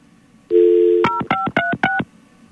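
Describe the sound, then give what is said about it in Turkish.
A steady telephone dial tone hums for about half a second, then four quick, evenly paced touch-tone beeps follow as a number is dialed to call someone back, loud and clear with no voices. “Bir daha kapatıp arıyoruz size efendim.”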